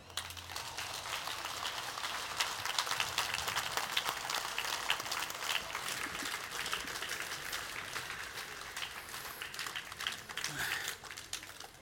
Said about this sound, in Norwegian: Men aller først så vil jeg gjerne at dere gir en varm applaus til